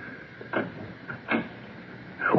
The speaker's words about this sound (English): Come inside. Close the door behind you.